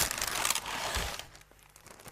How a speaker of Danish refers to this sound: Ude i køkkenet finder du en kniv frem, og snitter konvolutten op.